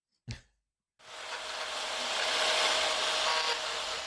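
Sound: construction work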